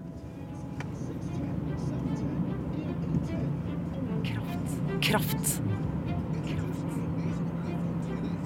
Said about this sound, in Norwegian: Får tak i en bil, en Uber, og kjører fra Boston i Massachusetts i USA og sørover et stykke. Jeg skal til Milton.